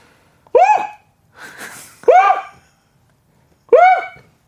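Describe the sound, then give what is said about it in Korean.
A voice imitates a water deer's cry: three loud, harsh, rising-then-falling screams with strong harmonics, separated by a noisy breath between the first two, with no talking. “고란, 고라니 울음소리 되게 무서운 거 알죠?”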